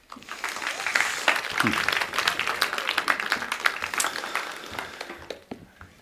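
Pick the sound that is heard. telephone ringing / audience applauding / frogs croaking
audience applauding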